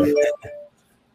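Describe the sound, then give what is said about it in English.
Two quick electronic notification beeps from a computer, one right after the other, clear, then quiet. “oh, my computer's giving me notifications. So sorry about the noises.”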